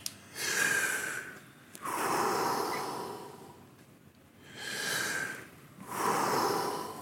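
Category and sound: human body sound, deep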